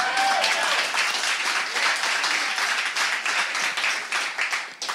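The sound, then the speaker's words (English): A crowd applauds steadily during a sermon for the full five seconds, a dense wash of many hands clapping at once with no pauses, loud and sustained, fading slightly near the end. “To, to, if you're going to clap, you got to clap.”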